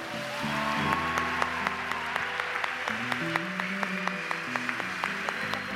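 An audience applauds the Lord, with many hands clapping steadily and briskly over sustained, mid-pitched keyboard chords that shift beneath the claps. The clapping stays fairly even throughout, and no one speaks.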